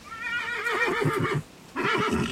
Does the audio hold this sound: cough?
no